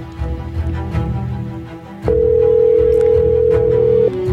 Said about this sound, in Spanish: ¿Cojo, no cojo? ¿Qué hago? Bueno, es llamada por WhatsApp. ¿eh? Es verdad, es llamada por WhatsApp. Nada, no va a coger, no, va a coger.